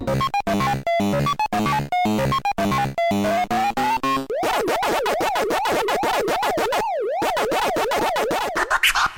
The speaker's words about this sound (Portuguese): É, ó o barulhinho aí do Pac-Man, né? Não sei, mas imagino que muita gente aí é, já ouviu, ficou horas e horas ouvindo esse barulhinho aí do Pac-Man enquanto jogava o seu Atari ou seus consoles de primeira geração, certo?